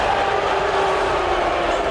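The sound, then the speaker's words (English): A steady, loud wash of crowd noise fills the two seconds, a sustained low collective roar of many voices: basketball fans booing a college basketball star without a break. “We've heard the booing from the crowd here.”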